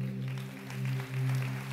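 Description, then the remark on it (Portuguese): A church audience claps for the Lord steadily in a dense, continuous patter, with a sustained low keyboard or organ chord droning underneath throughout. “Aplauda o Senhor.”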